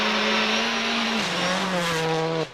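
A Citroën Xsara WRC rally car's engine roars loud at high revs, its pitch dropping briefly as it shifts gear partway through, then cutting off sharply near the end. No voices.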